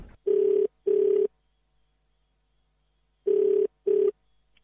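Two pairs of short electronic ring tones, a double ring, a pause of about two seconds, then another double ring, heard from the caller's end of a phone line with no talking.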